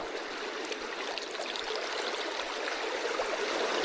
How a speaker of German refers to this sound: Und hier haben wir ein anderes Meeresrauschen. Finde ich persönlich schöner.